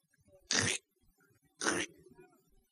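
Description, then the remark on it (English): Two short, sharp crunching bursts made by a voice imitating roaches and beetles being crunched underfoot, spaced about a second apart, loud, with faint breathy murmur between them. “You know how they sound when you crunch them?”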